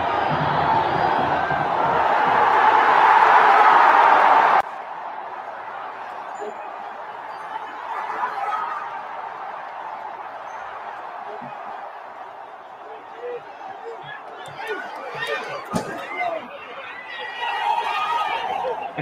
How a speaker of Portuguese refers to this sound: E aí agora a gente entra com o som do estádio, né?